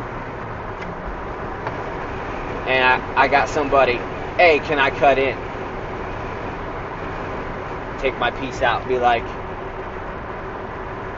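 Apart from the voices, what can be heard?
wind noise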